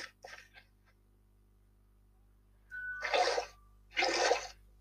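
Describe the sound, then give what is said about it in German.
In a video game, water is scooped from an infinite water source: two bursts of splashing, sloshing water, each about a second long and fairly loud, the first preceded by a short tonal blip, with a brief quieter rustle at the start. “und bedienen uns wieder an unserer unendlichen Wasserquelle.”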